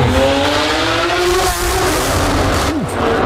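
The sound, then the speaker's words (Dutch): A Novitec-tuned Lamborghini SVJ supercar engine roars loud, its pitch sweeping up and down as the throttle is blipped, the blaring sound filling an underground garage for the whole stretch, with no talking. “reed de Novitec Lamborghini Afterdoor SVJ”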